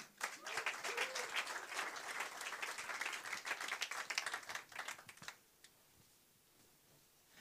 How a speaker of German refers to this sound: Herzlichen Applaus für Manu.